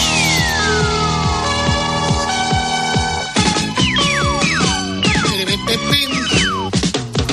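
A loud, busy theme tune of the Spanish TV programme Aplauso, with bright, dense instrumentation and a driving beat, punctuated by repeated swooping downward glides that sound almost siren-like. No one speaks over it.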